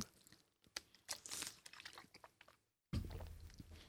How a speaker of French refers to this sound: je me prends une petite pause gorgée d'eau parce que là, ça fait comme un petit bout que je parle, puis que je commence à avoir la bouche sèche. fait que petite pause, petite pause gorgée d'eau, puis je vous reviens dans quelques secondes.